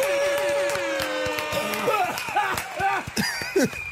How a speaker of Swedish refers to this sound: En applåd och en tuta på det!